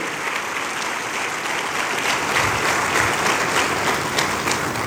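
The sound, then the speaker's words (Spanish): Loud, sustained applause from an audience, given for the Lord, a dense crackle of many hands clapping that swells slightly in the second half and continues steadily without pause. “Vamos, denle un aplauso fuerte al Señor.”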